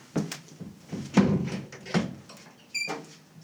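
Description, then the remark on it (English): A door rattles and clunks several times in uneven bursts as someone tugs at it without it opening, with a short high squeak near the end. “I just, I just can't open the fucking door!”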